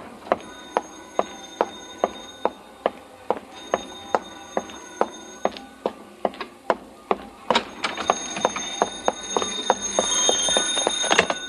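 A telephone bell rings in rapid, evenly spaced metallic strikes. In the last few seconds it swells into a louder, continuous jangling ring with no voices.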